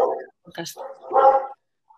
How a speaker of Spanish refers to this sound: seguramente los ladridos salgan en triple eh, por tres vías.